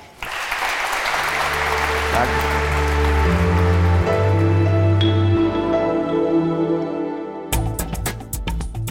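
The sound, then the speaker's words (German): Sustained applause from an audience for guest Jens Spahn, German Federal Health Minister, at the Lange Nacht der Zeit in Hamburg's Michel church on 4 September, steady and fairly loud, mixed with a musical outro underneath, and a voice briefly offers thanks. “Zum Abschluss bitten wir Sie nochmal um einen kräftigen Applaus für unseren Gast Jens Spahn.”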